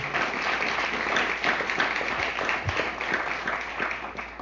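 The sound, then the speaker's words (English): A crowd applauds steadily, a dense wash of many hands clapping at once at an even, sustained level for several seconds, loud, with no voices standing out. “So let's hear it for Matthew”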